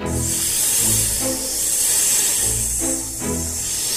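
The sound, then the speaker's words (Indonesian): A python's loud, steady hiss runs continuously for several seconds, breathy, with faint low tones murmuring beneath it and no voices. “Uh, raja memerintahkan aku untuk menjaga sabuknya, kata kancil sambil menunjuk ular piton yang sedang tidur.”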